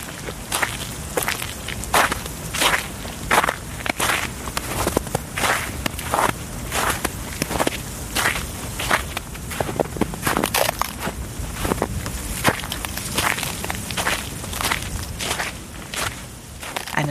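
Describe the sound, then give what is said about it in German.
Steady footsteps crunch and creak through deep snow, about two per second, continuous, with a faint wind rushing through icy branches in the background and no voices. “steife Brise bläst durch vereiste Äste, knarzende Schritte im tiefen Schnee.”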